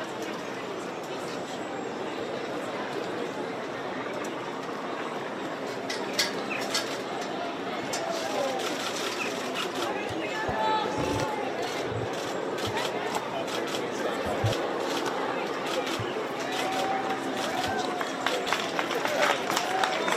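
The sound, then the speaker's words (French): A large outdoor crowd at Windsor claps steadily for about twenty seconds, a dense, even patter of applause with scattered voices and faint birdsong mixed into the background. “applaudissements du côté de, Windsor.”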